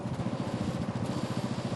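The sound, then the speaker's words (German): A small motorcycle engine runs steadily, its rapid, regular putter pulsing at a constant idle-like pace with no speech over it. “Sie haben sich ein kleines Motorrad angeschafft”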